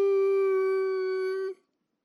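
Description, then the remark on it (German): A child lets out one loud, sustained howl at a steady pitch, held for about a second and a half before breaking off abruptly, with silence after. “Ah, ob du nun brüllst oder bettelst”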